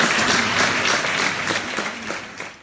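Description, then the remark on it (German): Sustained crowd applause, dense and steady, with many hands clapping at once from a large gathering in Vienna as a coffin from St. Stephen's Cathedral is carried past, slowly fading toward the end. “Dann kamen die Glocken vom Stephansdom und dann auf einmal, wie der Sarg an uns vorbeigebracht wurde, Applaus.”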